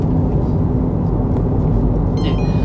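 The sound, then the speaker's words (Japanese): Steady, loud road rumble from inside a car driving on a highway and passing through an ETC toll lane, with a brief electronic beeping tone near the end like a toll gate chime. No one speaks. “ET 車線通行してますわ。”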